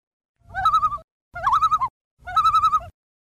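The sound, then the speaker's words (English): A loon, a Canadian bird that looks like a duck, gives its tremolo call three times in quick succession, each phrase a rapid, wavering run of pulsed notes, loud and clear with no talking. “Loons sometimes make a really spooky tremolo sound. Here's part of a clip with kind permission of US Fish and Wildlife Service.”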